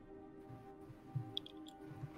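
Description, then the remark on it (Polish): A door is shut quietly: a soft low thud followed by a couple of small latch clicks, with no voices and only faint background hum. “Słyszysz tylko, kiedy zamykasz za sobą drzwi.”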